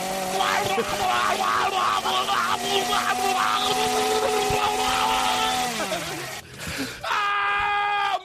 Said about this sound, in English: Wow, the chainsaw also works. Wow!